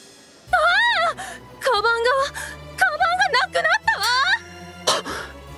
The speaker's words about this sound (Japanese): ラブール警部は仕方なさそうに首を横に振っていると突然遠くから悲鳴が聞こえてきました